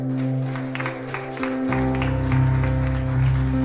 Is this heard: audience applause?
yes